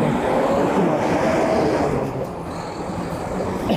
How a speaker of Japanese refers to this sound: 今ね、ちょっと信号待ちなんで少し音がうるさいかなと思いますが、まあゆっくりね、